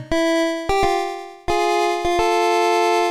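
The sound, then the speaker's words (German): A pocket synthesizer plays a short run of bright, buzzy sustained 90s-style notes, stepping between a few pitches with sharp attacks, fairly loud with no talking. “Aber es ist ja egal, als Soundlieferant für so 90er Jahresteil Sounds reicht's ja.”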